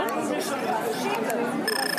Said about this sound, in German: Das ist jetzt erstmal der Ton. Wenn, ich habe jetzt meine Hand davor, ja. so 20 Zentimeter und dann piepst es eben wie verrückt.